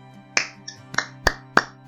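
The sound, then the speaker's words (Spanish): Six sharp, evenly spaced claps, roughly three per second, like one person applauding slowly, given as applause for Nelson Mandela, over a low steady hum with no talking. “Un aplauso para Nelson Mandela.”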